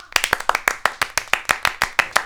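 A quick, steady round of clapping for the female conductor of a show's musical segment, around fourteen sharp, crisp hand claps in about two seconds, evenly spaced and fairly loud, with no voices over it.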